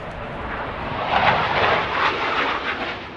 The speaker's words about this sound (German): Es wird laut in Manching und das bevor der erste Redner auf dem Werksgelände von Airbus ans Mikrofon tritt. Ein Eurofighter donnert im Tiefflug über die rund 3000 Mitarbeiterinnen und Mitarbeiter, die sich auf einem Platz hinter der Kantine